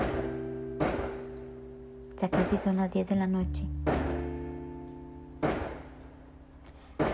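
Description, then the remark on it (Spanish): Fireworks go off at the turn from 2020 to 2021 in irregular bursts, a handful of dull booms with a brief crackling flurry in the middle, heard beneath a person speaking. “Esos son los fuegos artificiales”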